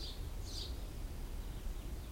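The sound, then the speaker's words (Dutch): Soft birdsong in a forest of conifers and deciduous trees: a couple of faint high chirps early on, then quieter calls, over a steady low outdoor rumble. No one speaks. “Je hoort al zachtjes de vogeltjes op de achtergrond.”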